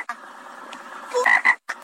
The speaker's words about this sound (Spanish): Le salió una rana a medio campo de golf.